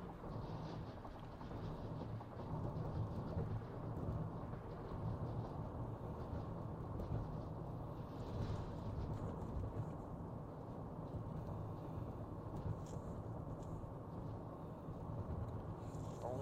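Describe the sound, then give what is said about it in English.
A heavy truck rumbles past with a deep, booming low-end drone that holds steady and loud for the whole stretch, with no voices over it. “You hear that? That's that truck.”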